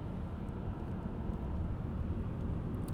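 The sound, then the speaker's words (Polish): A heavy truck rumbles by outside, its deep engine drone steady and fairly loud throughout the few seconds, with no one speaking over it. “poczekaj, tylko muszę e, zapiąć ten pomad znowu, bo tu ciężaróweczka.”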